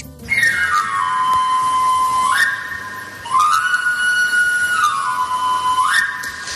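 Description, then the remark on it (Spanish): A travelling knife sharpener's panpipe whistle, the call of a traditional itinerant street trade, plays bright, sweeping scales up and down, repeated about three times in a loud, clear run with no talking over it. “¿Quién no ha escuchado este sonido alguna vez? Estamos hablando, por supuesto, de los afiladores, un oficio muy tradicional de venta directa, de venta a puerta fría y ambulante”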